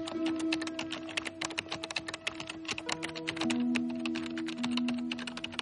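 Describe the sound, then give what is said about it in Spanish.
Rapid, steady typing on a computer keyboard by a journalist writing a news article about a congressman's arrest, with dense clicking keystrokes throughout over a faint background hum and a few low sustained tones. “los abre muy despacio y entonces empieza a escribir el artículo acerca de la detención del congresista Stephen Collins y las pruebas que le incriminan.”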